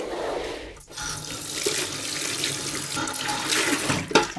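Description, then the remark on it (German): Steady rush of running water from a tap into a hair-washing sink at a hair salon, continuous, with a brief dip near the start and a small splash toward the end; no talking. “So, und dann gehen wir jetzt quasi mit Kabeln mhm. nach hinten zum Waschen.”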